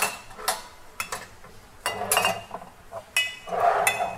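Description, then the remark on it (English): Glass and kitchenware clink and tap in a series of sharp knocks as a soy sauce bottle is fetched, handled and set down among other items while a marinade for eggs is prepared; no one speaks. “So, let me get my soy sauce.”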